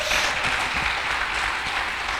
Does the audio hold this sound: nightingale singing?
no